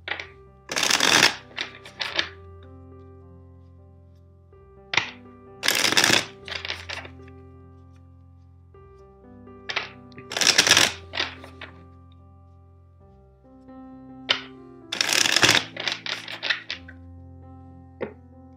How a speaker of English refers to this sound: Now let's start with your reading. First, let's shuffle four times the deck.